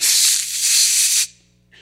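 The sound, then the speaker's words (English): A person imitates sipping wine through clenched teeth used like a filter to strain out gnats: a loud, steady airy hiss lasting over a second, ending abruptly, followed by a brief faint hiss. “they would sip their, they would sip their wine so that they would strain a p- potential gnat.”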